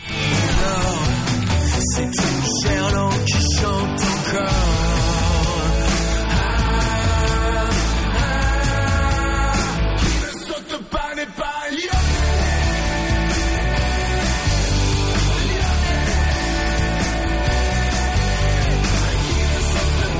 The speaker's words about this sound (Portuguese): Essa é uma das músicas que embala a torcida do Lyon, dizendo: quem não pula não é Lyon. Ah. É, é, um grito clássico que tem na, na Europa, não sei se muita gente acompanha.